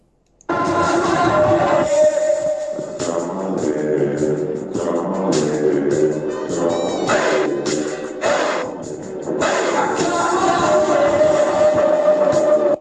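A recorded rock song plays loudly after a brief moment of silence, dense and full with sustained tones and rhythmic breaks, continuing steadily with no one talking over it.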